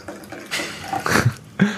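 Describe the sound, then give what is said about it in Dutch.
Red wine, a French Bordeaux, being poured into glasses, a short run of splashy, gurgling bursts with a bright liquid hiss that swells and fades. No one speaks. “het geluid van wijn wat in een glas”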